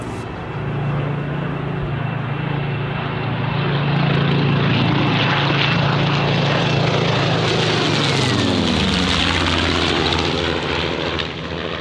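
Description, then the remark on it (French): Propeller warplanes, bombers and British Spitfire fighters, roar overhead on 6 June 1944, a loud, steady engine drone that swells and then drops in pitch as the aircraft pass by, with no voices. “Ils ont embarqué dans 122 appareils, des bombardiers et surtout des Spitfire, les avions de chasse britanniques.”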